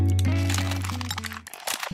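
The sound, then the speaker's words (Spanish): Loud crackling and crunching of ice breaking on a frozen lake where children were skating, over a deep, sustained rumble; the rumble cuts off partway through while sharp, scattered cracks continue. No one speaks. “Los niños llevaban toda la mañana patinando sobre un lago helado cuando de pronto el hielo se rompió.”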